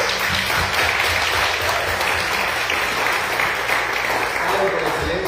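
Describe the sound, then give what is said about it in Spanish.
An audience at a church service breaks into steady, dense applause for God, many hands clapping at once in a sustained wash of sound that stays loud throughout, with faint voices mixed in underneath. “Un aplauso al papi principal que es Dios, por favor.”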